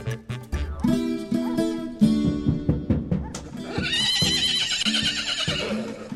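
A horse whinnies loudly, a long shaky neigh that turns breathy and rough toward the end, with a few sharp knocks early on that could be hooves.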